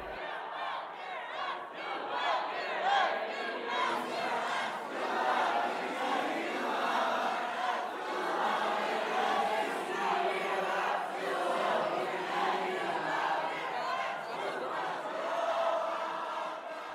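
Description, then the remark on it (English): A large crowd of pro-Palestinian demonstrators chants while a circle of pro-Israeli students inside Corwin Pavilion sings Hatikva, the national anthem of Israel. The two blend into a dense, steady wall of sound that stays loud and unbroken from start to finish. “Inside Corwin Pavilion, pro Israeli students gathered in a circle and sang Hatikva, the national anthem of Israel, against the sound of pro Palestinian demonstrators chanting.”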